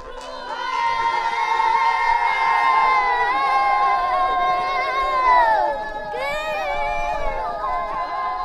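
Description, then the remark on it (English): Child riders aged 6 to 11 chant an encouraging song called Gingo for their horses while warming them up, their high voices held in long sustained notes that slide downward, pause briefly, then rise into a new phrase. “And so while they're warming up the horses, they do this encouraging or inspiring song for the horses.”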